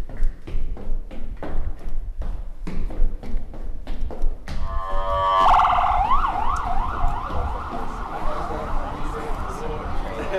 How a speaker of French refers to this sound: Je vous emmène à New York pour une balade sonore en cage d'escalier.